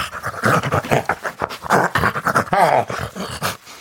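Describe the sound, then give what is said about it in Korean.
Yun Jeong-su imitates a wolf as a 'wolf boy', growling and panting in quick rough bursts, loud, with breathy gasps and a brief whimpering whine near the end. “네, 여러분들은 늑대 소년 윤정수를 보고 계십니다.”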